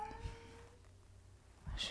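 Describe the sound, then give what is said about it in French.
A cat named Minou, running around wildly, gives a couple of short meows, with brief bursts of higher-pitched vocal sound near the start and end and a quieter stretch in between. “Ça y il pète les plombs, il court partout.”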